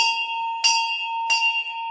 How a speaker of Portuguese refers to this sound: Este é o Badalo do Reclame e eu sou o Reclame.